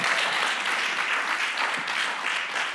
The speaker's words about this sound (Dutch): En ik wil dat u daar een klein beetje een applausje voor geeft.